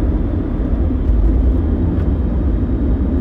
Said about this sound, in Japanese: でも聞いてる人は車の走ってる音とかさ例えば救急車が来たりしたら救急車の音とかも聞こえちゃうんだけど